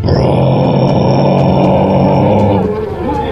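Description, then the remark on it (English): A person imitates a war horn with their voice, holding one loud, deep, droning blast for about three seconds, with no other sounds around it. “he steps outside and there's this this horn that is next to his his his uh, tent and he gives it a like a, a blow and it's like”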